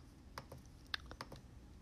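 A handful of small, sharp computer mouse clicks tap out in an irregular run, quiet, with one click standing out louder than the rest, as someone clicks next on a publishing setup page. No one speaks.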